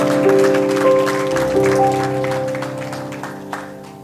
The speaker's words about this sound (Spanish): Le damos un fuerte aplauso a nuestro Señor Jesús En este día.